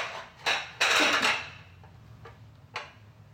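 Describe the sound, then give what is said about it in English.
Dishes clatter and clink in a few sharp bursts as a maid in Borba's mansion struggles to balance an oversized stack of plates in the evening, the loudest a jumble of knocking plates near the start, followed by fainter scattered taps and one more clink, with a low hum beneath. “Inside, three maids bustle about, one struggling to balance an oversized stack of plates.”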